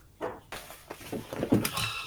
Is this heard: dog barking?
yes